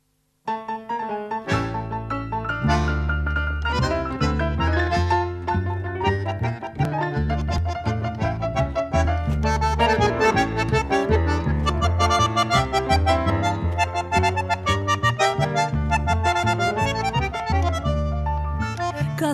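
A song plays at full, steady volume, with dense layered instruments and strong bass notes changing rhythmically throughout. It starts after a brief silent moment, and no one talks over it.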